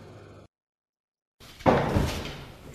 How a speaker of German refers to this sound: Äh, ich mach mal. Ich glaube, ich mache die Tür auf.